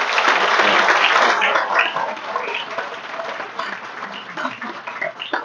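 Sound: audience round of applause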